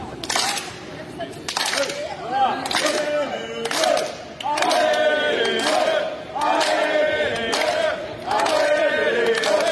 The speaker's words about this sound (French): Ah, j'entends des gens chanter Allez les oui, Alors tu sais, ça c'est un clapping avec des gens qui chantent Allez les Bleus. J'adore, je suis en de clapping.